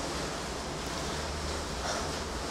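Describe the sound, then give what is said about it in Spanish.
Steady rain falls outside, a dense, even hiss that fills the whole clip without pauses or individual drops standing out, moderately loud and continuous. “No sé qué tanto se está escuchando la lluvia, les pido una gran, gran disculpa, de verdad.”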